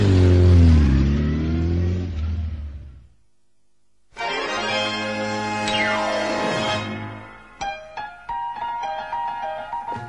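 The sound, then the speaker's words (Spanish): Toto's motorcycle engine revs up loud, falls silent for a moment, then roars again with rising and falling pitch before ending in a series of short, choppy throttle blips. “moto del Toto.”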